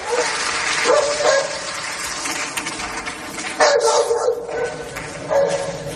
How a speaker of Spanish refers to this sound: Están en, en el Pleno y eh, comparece el presidente del Gobierno de España, precisamente Pedro Sánchez, y justo después la presidenta de la Comisión Europea, Ursula von der Leyen. Y de repente suena este ladrido.